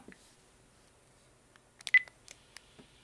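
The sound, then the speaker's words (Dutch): A few short electronic tones and taps from a smartphone as stop is pressed and the phone is locked, clustered near the middle, ending with a crisp click; fairly quiet, with no one speaking. “Ik druk op stop. Pas. Stop. En ik zet de telefoon vergrendeld.”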